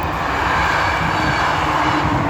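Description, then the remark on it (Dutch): A steady, loud mechanical roar from a passing train, heard while walking along the Demer river, fills the whole stretch, a dense low rumble with a rushing hiss on top and no voices. “Dat is de trein die je hoort.”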